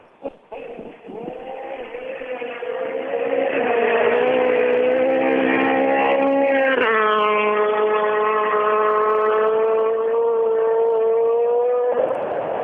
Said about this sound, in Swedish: Vi hör i bakgrunden att det börjar eh, låta brumrum ute på sträckan och alldeles strax då så ska vi ha Robin Sandberg förbi.